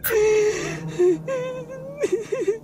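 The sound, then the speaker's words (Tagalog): A woman cries in high, wavering whimpers, her voice rising and breaking into short sobbing bursts with a sharp breath at the start, fairly loud with no words. “Nagulat ako nang makita ko ang babae na umiiyak.”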